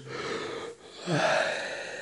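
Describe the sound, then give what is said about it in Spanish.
A single yawn: a long breathy inhale, a brief pause, then a voiced, drawn-out exhale with a soft moan, heard on its own without talking. “Bostezo, masaje en la nuca, masaje en la cara.”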